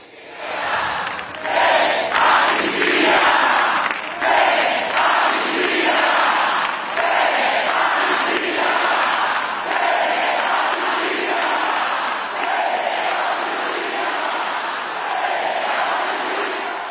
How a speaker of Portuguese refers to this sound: Vocês lembram que na, na posse de Lula a galera tava ali gritando sem anistia?